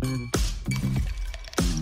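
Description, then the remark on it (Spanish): Ice cubes clatter into a glass in three quick drops, each a sharp clink with a bright ringing tail, fairly loud with no talking, as the first ice goes in for a Branca Menta and tonic drink. “Esa hora en la que tirás los primeros hielos.”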